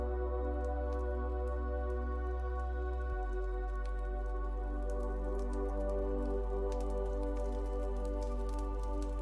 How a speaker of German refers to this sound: Du kommst dem Licht immer näher und kannst eine Feuerstelle erkennen. Du gehst langsam näher zum Feuer und du kannst das Geräusch des Feuers wahrnehmen.